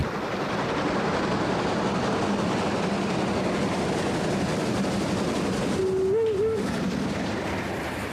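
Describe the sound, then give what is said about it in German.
The steam express locomotive 01 150, built in 1935, runs steadily along the rails, a loud, continuous rumbling roar that holds for the whole stretch, with a brief low tonal note rising near the end. “Heute geht es um eine Dampflok-Legende, die Schnellzuglokomotive 01 150 von 1935.”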